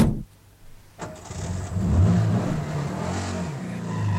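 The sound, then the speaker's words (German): A car engine cranks and catches after a short pause, then revs up and rumbles steadily as the vehicle pulls away, loud with no voices. “Das war der Wagen, auf den ich gewartet habe.”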